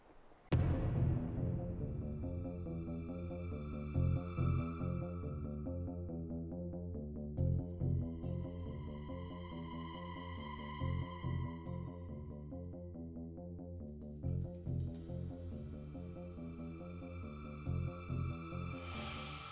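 A short, small instrumental pause tone plays on its own as a break, a steady rhythmic tune with bright sustained tones over a pulsing bass line, loud, with no voices.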